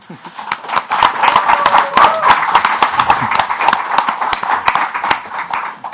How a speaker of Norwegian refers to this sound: det andre jeg skal si, er at jeg syns vi skal klappe for oss selv at vi er samlet her i dag, sånn at vi får opp stemninga litt.